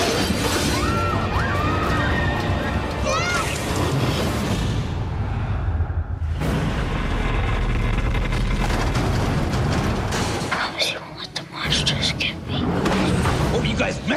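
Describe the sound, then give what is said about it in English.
A large plate glass door shatters loudly, the dense crashing and tinkling debris continuing in bursts over a chaotic, noisy background with what sounds like voices mixed in. “The entire front of this door is plate glass.”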